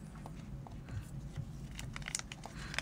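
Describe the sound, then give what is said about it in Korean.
Irregular crackling and crinkling of a mastic wrapper being peeled open, with a quick cluster of sharper crackles toward the end over a low background hum. “지금 그 어, 매스틱 까놔야겠다.”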